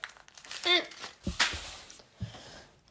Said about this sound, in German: Zuerst bitte nehmen Sie sich ein Blatt Papier, dann knicken Sie das um.